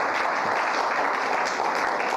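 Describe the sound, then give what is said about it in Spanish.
A thin, half-hearted round of audience applause: a steady wash of scattered clapping at moderate volume, with no voices over it, lasting a couple of seconds. “Ah, ese su aplauso está más que raquítico.”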